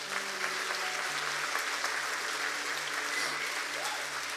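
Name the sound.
audience applauding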